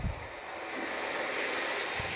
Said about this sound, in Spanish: sintiendo como si hubieran olas muy cerca, como si el mar se hubiese embravecido, o si me estuviera llamando para que lo vaya a ver